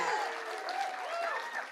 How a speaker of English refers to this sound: Wait, I think there needs to be more of an applause on that situation.